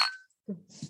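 A single bright glass clink rings out and fades quickly as glasses are raised in a toast, followed by low murmuring voices and shuffling.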